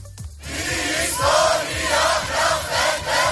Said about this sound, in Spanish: Son los gritos, las protestas por el mal estado de los ferrocarriles a raíz del accidente que ya deja 47 muertos y 57 hospitalizados.